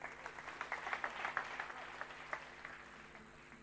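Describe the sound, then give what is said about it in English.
A crowd applauds for the Lord with dense, rapid clapping that swells early, then gradually thins and fades toward the end, with no one speaking. “Give the Lord a clap.”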